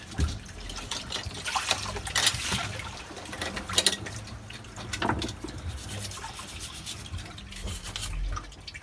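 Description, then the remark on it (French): A fresh-water shower runs steadily on a boat, a continuous hiss of spraying water with splashes and small clatters scattered through it. No one speaks. “Douche à l'eau douce, donc euh, très confortable.”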